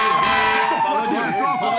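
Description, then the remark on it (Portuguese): A siren sound effect on the show Resenha ESPN blares with a steady, high, sustained tone, loud, as a light flashes, while voices talk faintly underneath in the second half. “Ah, tocou na hora certa, Sirene, piscou a luz.”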